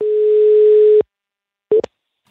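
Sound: telephone line tone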